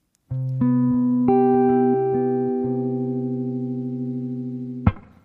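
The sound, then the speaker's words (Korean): A song's instrumental intro plays: sustained, buzzy keyboard-like chords that shift a few times in steady succession, holding at an even loudness before a bright, sharp hit near the end. No voices. “아, 노래 듣고 올게요.”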